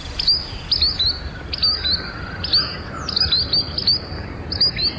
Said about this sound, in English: Today's Talking Birds featured feathered friend, Tringa solitaria, the solitary sandpiper.